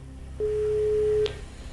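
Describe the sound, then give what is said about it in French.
A single steady telephone ringback tone of an outgoing call put on air to the caterer Framboise Traiteur, an even, pure hum lasting nearly a second, then it cuts off and leaves a faint background rumble. No one speaks. “Ça y est, je l'entends. La sonnerie.”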